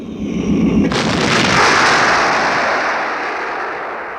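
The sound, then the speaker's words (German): A cannonball whistles through the air, a thin high tone over a low rumble, then slams down near a hut in one loud explosive blast that throws up large clods of earth and fades into a long, roaring rumble. No one speaks. “Hauptmann Tuschin konnte seinen Satz nicht vollenden denn in diesem Augenblick ließ sich ganz nahe ein lautes Pfeifen in der Luft vernehmen und gleich darauf schlug unweit der Hütte eine Kanonenkugel ein, große Erdbrocken emporschleudernd.”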